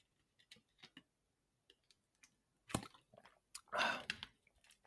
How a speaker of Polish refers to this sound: Przepraszam was, napiję się wody.